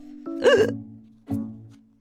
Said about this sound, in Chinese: 有那么一瞬间，我担心是我打嗝了，但并不是我，也不是爱丽丝、三月兔或者红桃皇后，是赞恩先生。赞恩先生在我们所有同学的父母面前打嗝了，他脸红了，剧院里一片寂静。